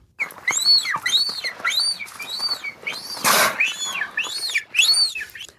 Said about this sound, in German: Wir hören uns jetzt erstmal an, wie sich Beluga-Wale normalerweise anhören. Ähm, für alle da draußen, Beluga-Wale, das sind die Weißen, die so eine sehr prominente Stirn haben.